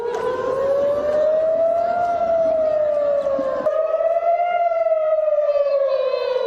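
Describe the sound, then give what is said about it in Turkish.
Air raid sirens wail continuously across Tel Aviv, Israel, as Hamas rockets target the city, a loud sustained tone slowly rising and falling in pitch with layered harmonics, echoing across the open city with no voices heard. “Kentte sirenler çalarken büyük panik yaşandı.”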